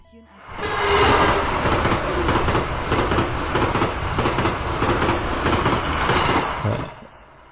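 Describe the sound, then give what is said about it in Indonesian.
A train arrives at a station, rolling in with a loud, steady rumble and clatter of wheels on the rails, ending in a brief high brake squeal as it slows and the noise fades. “Penyiar pemberangkatan mengabarkan kereta kota tujuan Renda akan segera tiba”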